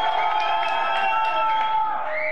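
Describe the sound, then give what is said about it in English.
A large crowd of Trump's fans cheers and shouts steadily outside a courthouse during court proceedings, a dense, loud wall of voices with a few higher whoops rising near the end, and no single speaker standing out. “Trump has fans who cheer for him outside court proceedings in which he's been determined to be a civilly liable rapist and they show up and they cheer for the guy.”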